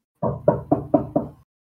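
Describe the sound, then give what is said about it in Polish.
Five firm knocks on apartment door number 81 in a student dormitory, in a quick, steady rhythm, fairly loud, then silence. No one speaks. “Pukamy.”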